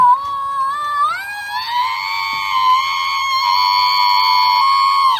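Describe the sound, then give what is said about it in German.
A screaming alarm clock effect: one shrill, piercing tone that lurches upward in pitch, then holds loud and steady for about five seconds before cutting off abruptly. No talking. “Das ist dieser das, schreiende Wecker aus, aus, aus der Folge Der seltsame Wecker, ne?”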